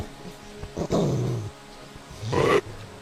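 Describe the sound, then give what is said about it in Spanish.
A huge, ferocious wolf growls near its cave as it lunges, in two harsh, snarling bursts, the first longer and rumbling, the second shorter and sharper, loud with no voices. “Cerca de la cueva encontró a la fiera enorme, que al verle se lanzó feroz contra él.”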